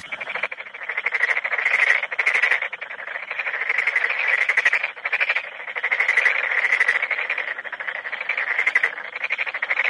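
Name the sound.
frogs croaking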